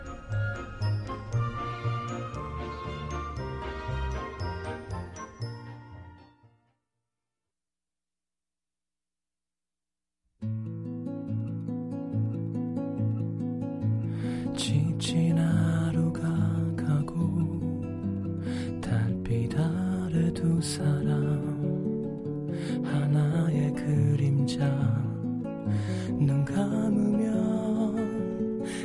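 A gentle instrumental ballad intro with bright, tinkling melodic notes plays, stops for a few seconds of silence, then returns as fuller, steady music. No one speaks or sings.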